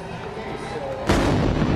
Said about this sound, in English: Terror at the Boston Marathon. Twin explosions shatter a celebration, turning a day of joy into a deadly nightmare.